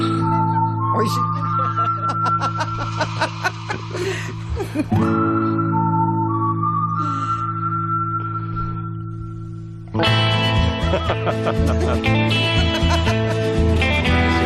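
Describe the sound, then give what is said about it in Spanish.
Twangy, reverb-soaked electric guitar plays a spaghetti western-style version of a TV series theme over sustained low tones, with slow sliding notes, then a brighter, busier burst of strummed chords in the final seconds. “Le quitas la guitarra eléctrica y se quedan nada.”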